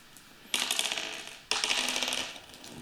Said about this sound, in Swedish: Men vi kan slå tärningar och se vem som börjar eh, ja. svara på det helt enkelt. Ta varsin tärning Högst emellan. Högst tärning vinner.